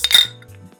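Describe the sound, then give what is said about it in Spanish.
Glasses clink together in a quick toast, a bright ring that sounds twice in fast succession and then fades into a short, high shimmer with no voices. “Salud. Cheers.”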